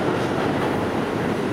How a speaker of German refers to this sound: Das, was ihr jetzt hört, ist nur eine U-Bahn auf einem relativ entfernten Track. Jetzt erst fährt die U-Bahn auf diesem Gleis ein. Und ihr merkt schon, ich bin eigentlich gar nicht mehr zu verstehen.